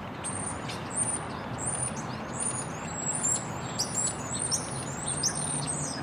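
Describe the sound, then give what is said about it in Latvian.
Birds chirp and tweet repeatedly in short, high bursts over a constant low rumble of city traffic on Earth, the calls fairly clear and steady throughout with no one speaking. “Šitais ir kā skanētu putni, uh, Birds with City noise uz Marsa šitā uz zemes skan.”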